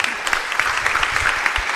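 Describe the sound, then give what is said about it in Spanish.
A crowd applauds themselves, the dense patter of many hands forming a continuous wash of applause with small bursts throughout, loud and sustained with no voices standing out. “Yo creo que yo quiero y creo que ustedes merecen hoy un fuerte, un fuerte aplauso de ustedes mismos.”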